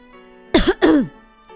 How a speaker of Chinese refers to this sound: 有人咳嗽了一声